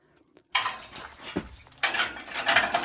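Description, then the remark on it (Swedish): Keys jangle and scrape in the lock of a detention cell door in two bright metallic bursts, followed by the clunk of the heavy cell door being opened. No one speaks. “Och så avbryts jag av nycklar i låsen och att dörren till min cell öppnas.”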